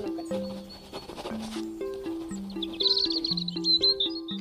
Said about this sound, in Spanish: Los pájaros. Los pájaros chiflan.